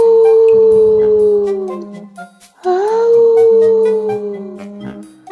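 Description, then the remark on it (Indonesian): Two long, mournful wolf howls, each holding a steady pitch before sliding downward, with a brief pause between them. They are loud, over a faint low hum and light tinkling. “Suatu hari, ketika Cici sedang asik menyendiri, tiba-tiba terdengarlah raungan serigala.”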